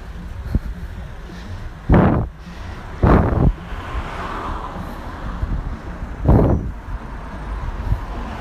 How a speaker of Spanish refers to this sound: Perdón el silencio, pero es que aquí había dos coches enfrentándose.